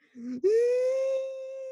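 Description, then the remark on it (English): A voice mimics a toddler's wailing cry, starting with a low grunt and then rising into a long, steady, siren-like tone that holds loudly before tapering slightly. “Yeah, that's they sound like sirens.”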